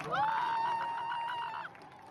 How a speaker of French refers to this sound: Tous les soirs, les Iraniens manifestent sans relâche contre le pouvoir religieux. Au son des cris et des klaxons, le mouvement de contestation propagé dans plusieurs villes ne faiblit pas et les femmes continuent de s'affranchir de leur voile.